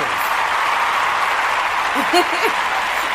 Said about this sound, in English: Let's give him a round of applause, my brothers and sisters.